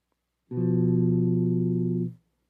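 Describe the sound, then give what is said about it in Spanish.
An inverted tritone interval sounds as a single sustained, steady tone on an instrument, held for about a second and a half before cutting off cleanly. It is fairly loud and rich in overtones, with no voices. “otra particularidad del tritono es que es simétrico es decir al invertirse el intervalo sigue siendo el mismo. Ahora lo voy a tocar eh, de una forma invertida.”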